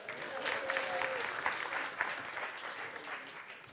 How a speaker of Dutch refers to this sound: Oh, ja, ik heb daar een vrijwilliger. Kom maar op. Applaus voor de vrijwilliger.